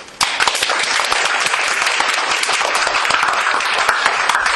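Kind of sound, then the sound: crowd, audience applause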